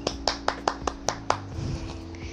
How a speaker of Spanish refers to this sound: No se preocupen que pronto les buscaré la manera de ponerle unos aplausos más lindos. Pero pues estoy aprendiendo de esto, así que mientras tanto, pues los aplausos van a ser en solitario.